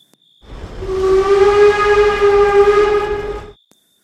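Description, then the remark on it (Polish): A huge black steel steam locomotive of the West Highland Railway from Glasgow, also called the Harry Potter train, sounds one long, steady whistle blast lasting about three seconds. It is loud over the rumbling chug of the train, then cuts off abruptly. “W Glasgow wsiądziesz więc do West Highland Railway, nazywanym również pociągiem Harry'ego Pottera.”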